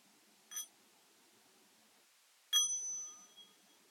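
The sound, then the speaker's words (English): A mindfulness bell is struck twice: first a brief light tap, then, two seconds later, a fuller strike whose bright, clear tone rings on and slowly fades. No one speaks. “I'm going to be inviting the bell of mindfulness on occasion”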